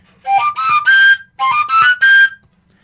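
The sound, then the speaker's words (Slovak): Two matching phrases of breathy koncovka overtone-flute playing, each three quick rising notes with a bright whistle-like tone and airy breath noise, separated by a short pause; no talking. “zatvárať ten, ten dutý koniec Hej. koncovky, ale len jednu dierku mám.”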